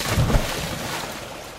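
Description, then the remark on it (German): Steady watery splashing ambience at a busy swimming pool, a continuous wash of noise with a brief louder churn at the start, then settling to an even hiss. “Zum Spaß, wie hier im Schwimmbad”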